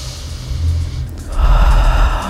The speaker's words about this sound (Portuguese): Uma respiração, é, uma respiração mais profunda, mais forte não, uma respiração mais profunda Respire com essa respiração profunda